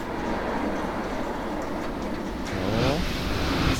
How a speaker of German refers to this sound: ich stehe jetzt hier vor dieser Fabrik und da hört ihr vielleicht im Hintergrund äh, sind schon so komische Geräusche zu hören.